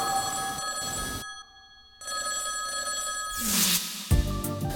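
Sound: old telephone bell ringing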